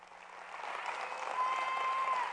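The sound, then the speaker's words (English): An audience claps together in steady, dense applause as praise to God, holding for a couple of seconds and growing slightly louder toward the end, with a faint whistle or cheer rising above it. “God's been good to you. Let's give him a hand praise today.”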